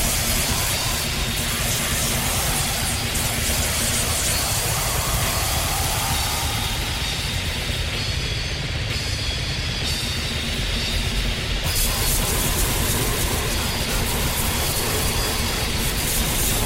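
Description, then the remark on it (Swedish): A dense, roaring wall of distorted war metal, loud and murky throughout, with guitars and drums smeared into one diffuse, hissing wash and no clear separation between instruments. “Jag är helt säker på att i ett mixerbord så finns det en egen eh, war metal-regel som man bara höjer så att allting blir superdiffust.”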